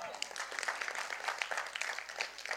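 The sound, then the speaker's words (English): A church crowd applauds steadily for every older person who doesn't complain about loud music, a dense, crackling patter of many hands clapping at once with a fairly even loudness throughout and some indistinct voices mixed in. “Just a round of applause for every older person who doesn't complain about loud music right now.”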